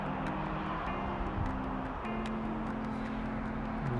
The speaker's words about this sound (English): Those cars are traveling very, very, very closely together. It's weird.